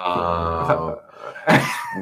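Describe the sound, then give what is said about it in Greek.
A voice imitates snoring: a low, droning groan for about a second, a short pause, then a breathy, rasping exhale, fairly loud. “Να σου πω κάτι, ροχαλίζει εσύ.”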